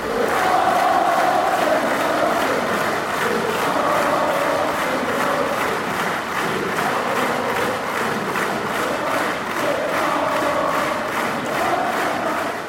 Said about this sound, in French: Cette version donne à son tour naissance à d'innombrables chants de supporters.